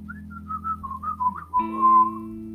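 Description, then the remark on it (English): A lone person whistles a smooth, wavering melody, sliding gently between notes, over steady low sustained background music that swells slightly near the end. “Jesus is passing this way and he's and he's whistling your name.”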